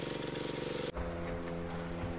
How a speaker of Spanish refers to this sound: Bueno, hagamos una cosa, prendamos la lancha y vámonos para Islas del Rosario. ¿Preparado?